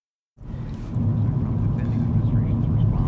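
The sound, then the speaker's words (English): After a brief silence, a steady, loud low rumble of road noise fills the inside of a moving car, constant and droning with a faint higher hiss above it. “I'm in my car and I'm driving.”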